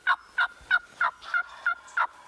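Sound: wild turkey gobbling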